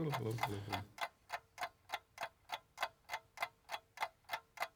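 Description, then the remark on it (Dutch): A clock ticks steadily and loudly, running a 20-second timer, each tick sharp and evenly spaced about three times a second. A brief burst of voice opens before the ticking continues alone. “Kijk, je hoort de, de klok.”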